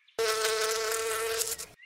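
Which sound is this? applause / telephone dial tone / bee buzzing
bee buzzing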